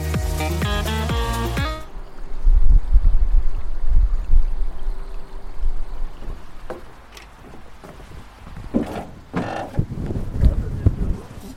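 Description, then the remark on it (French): Wooden creaks and knocks as someone steps aboard a professional fisherman's small fishing boat in Indre-et-Loire, France, with water lapping and sloshing; a short burst of music plays first, then the creaking continues alone. “Là, je viens de monter sur le bateau”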